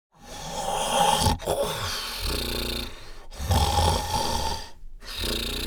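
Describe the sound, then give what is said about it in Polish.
An elephant snores loudly while still asleep, with three long, deep, rumbling snores separated by brief silent pauses, heard alone without any talking. “Słoń jeszcze spał, głośno przy tym chrapiąc.”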